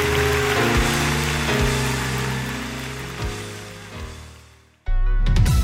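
An Elevation Church audience claps steadily after a prayer, in a dense, crackling wash of applause with sustained music chords playing underneath. The clapping runs for several seconds before cutting off abruptly.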